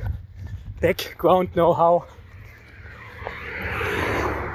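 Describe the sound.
A car passes by, its broad whooshing rumble swelling gradually over the last few seconds, after a short burst of speech at the start.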